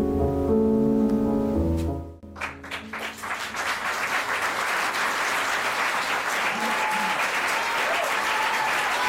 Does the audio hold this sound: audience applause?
yes